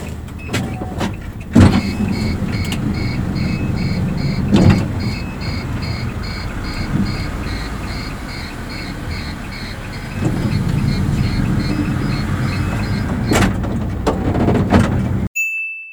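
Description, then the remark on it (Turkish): The sliding door of a shuttle minibus in Istanbul closes amid a steady engine rumble, with a rapid electronic beeping running throughout and a few sharp thuds and clunks as the door moves and latches. “İşte kapıdan çıkan ses aynen şöyle.”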